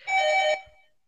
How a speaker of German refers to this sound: Ah, da ist die Klingel. Da ist die Klingel, genau. Was ein Zeichen.